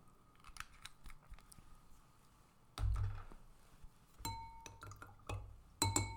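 A spoon clinks and taps against a glass as a few drops of citrus-scented oil are stirred into water, with a few sharp ringing knocks among softer scraping clicks and low thumps, with no talking.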